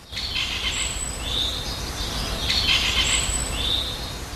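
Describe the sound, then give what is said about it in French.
A great spotted woodpecker calling among trees: repeated sharp, high-pitched notes over several seconds, set against a steady hiss of outdoor background noise, with no one speaking. “D'ailleurs, si vous entendez, derrière nous, il y a le pique pêche qui est en train de, chanter.”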